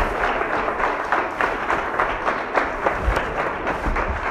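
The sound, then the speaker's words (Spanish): Sustained applause from a crowd clapping for the Lord, a dense wash of many hands clapping at steady loudness for several seconds, with occasional sharper claps standing out and no voices. “Mira, síguele aplaudiendo al Señor, síguele aplaudiendo a tu papá, síguele aplaudiendo.”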